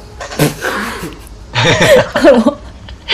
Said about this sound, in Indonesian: batuk boleh